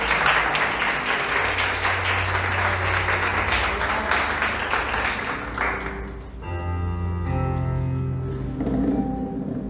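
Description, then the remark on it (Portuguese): A church audience, standing, gives loud, dense applause to the Lord for about six seconds over a low sustained hum, then the clapping fades and steady held musical tones carry on alone. “Dê agora uma salva de palmas ao Senhor.”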